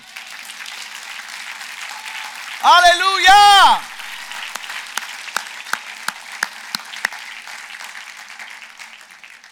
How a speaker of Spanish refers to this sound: Un aplauso al Señor.